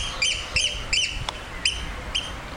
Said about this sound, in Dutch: Ja, dit is de schollekse die je hoort. En dat is met name nu ook in deze tijd van het jaar, de broedtijd, dat ze zo eh, luidruchtig zijn.